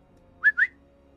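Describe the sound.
A person gives two short, sharp whistles in quick succession, the second rising slightly, calling dogs, loud with a quiet background and no talking.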